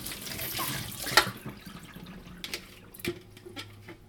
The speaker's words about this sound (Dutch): Spoel ik gelijk ook die bak van die weegschaal even af. Dan kan die ook aan de kant, want het is wel een groot ding ja. op je aanrecht.